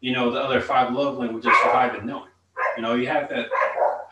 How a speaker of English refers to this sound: sorry sorry, like that's my dog barking in the back.